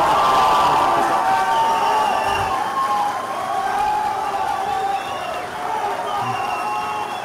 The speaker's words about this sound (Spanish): varios aplausos, los víctores.